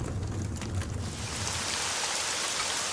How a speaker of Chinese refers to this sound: 这是雨水拍打叶子的声音